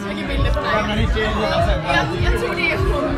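Steady crowd chatter fills a bar, many overlapping voices blending into a continuous babble of background noise, moderately loud with no single voice standing out.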